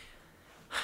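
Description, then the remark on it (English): A single abrupt sneeze bursts out after a stretch of quiet breathy hiss: a short, sharp, airy blast near the end, with no talking around it. “Bless you. Thank you.”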